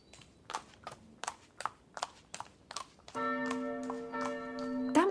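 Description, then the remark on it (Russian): Horse hooves gallop in a steady, even rhythm of sharp thuds; partway through, a sustained ringing, bell-like tone rises underneath as the hoofbeats continue. “Сказал он так, посадил маленького мерзавию перед собой на коня, и вот уже скачет в Броуман.”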